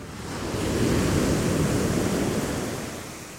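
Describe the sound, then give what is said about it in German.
A single wave surges and washes onto the shore, swelling to a broad rushing roar and then slowly receding, with steady surf hiss throughout and no voices. “Ab ans Meer.”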